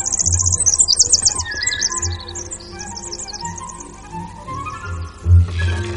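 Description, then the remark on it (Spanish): A bird chirps in quick, bright bursts of high tweets as it flies over the grounds outside a castle school, over a sustained orchestral backdrop, ending with a low thump or whoosh near the close. No one speaks. “día siguiente, un pájaro sobrevuela los exteriores de Hogwarts.”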